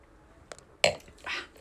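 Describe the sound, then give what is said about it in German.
Glasses clink together in a toast: a light tap, then a sharper ringing chink, followed by a brief soft rustle. “Nee, anstoßen.”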